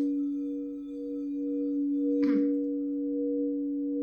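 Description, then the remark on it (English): An Alchemy selenite aqua orogold crystal singing bowl rings with a steady, sustained pure tone and a faint higher overtone, unbroken for the whole clip, interrupted only by a brief soft rustle partway through. “Part 2 of my Alchemy Crystal Singing Bowls Collection”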